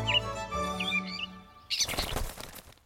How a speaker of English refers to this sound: Ah, the bird flies away like we wish we could.